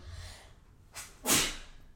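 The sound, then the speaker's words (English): A single sneeze: a short sharp intake followed by a loud, breathy burst, standing alone against quiet background hum with no talking. “Bless you.”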